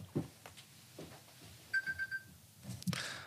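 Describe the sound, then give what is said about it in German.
An alarm clock goes off with a quick burst of about four high electronic beeps in a rapid, even rhythm, briefly standing out among some low thumps and background noise. “Da hat wohl jemand seinen Wecker angelassen.”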